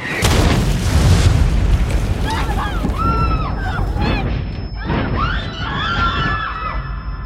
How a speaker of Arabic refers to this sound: مجرد ما باخد أول خطوة تجي قذيفة من الزاوية